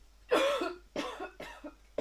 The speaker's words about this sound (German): Husten.